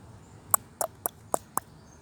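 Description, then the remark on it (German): Birds trilling outdoors: five short, sharp chirps come in a quick, fairly even series against a soft background hiss. No one speaks. “Nee, okay, also ich weiß nicht, ob man das hört, aber ein paar Vögel haben auf jeden Fall getrillert.”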